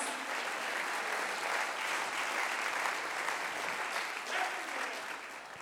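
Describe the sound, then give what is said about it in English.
An audience claps hands steadily for several seconds, a dense, continuous crackle of many hands at an even loudness, with no distinct voices rising above it. “Oh, somebody clap your hands before the oh, Lord.”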